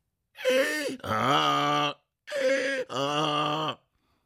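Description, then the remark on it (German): A human voice imitates a donkey's bray, two loud hee-haw calls in a row, each a higher strained note dropping into a long, low, drawn-out groan. “Sein ganzes Leben lang hatte er schon seine Stimme trainiert, bis sie diesen unverwechselbaren Klang hatte.”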